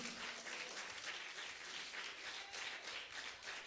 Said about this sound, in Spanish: ¿Cuántos alaban a Jehová? Démosle un aplauso a Cristo.